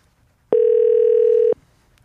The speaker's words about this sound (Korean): 자, 그럼 오늘 첫 번째 도전자 전화 걸어 주시죠.